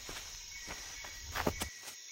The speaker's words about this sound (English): As they settled themselves again with eyes closed, listening to the jungle, there came the sound of stumbling footsteps and a voice that certainly did not belong in the Amazon rainforest.